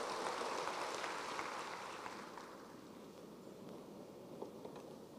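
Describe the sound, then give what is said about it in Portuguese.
An audience applauds the Lord in a dense, steady wash of clapping that holds fairly loud before tapering off somewhat toward the end, with no voices over it. “Dê um aplauso ao Senhor e tome seu assento.”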